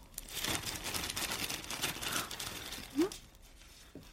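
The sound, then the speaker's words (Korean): Continuous crinkling and rustling of plastic wrapping as it's handled and pulled open, with a brief sharper crackle near the end before it quiets. “이건 또 뭐길래 비닐을 싸놨어?”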